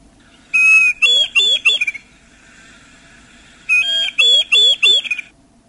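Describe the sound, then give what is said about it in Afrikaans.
Two bursts of the call of the Christmas bird, known in Afrikaans as the Kersfoeltjie, each a quick run of four or five loud, ringing whistled notes, separated by a short pause over faint background hiss. “Daar vlieg die Kersfoeltjie weer.”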